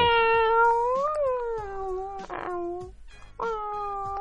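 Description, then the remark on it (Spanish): A cat-like yowl, made by a woman imitating a cat, sounds loudly in a long, wavering, drawn-out cry, breaks off briefly, then starts a second moaning yowl. “Y ese horrible maullido nosotros no lo imaginamos.”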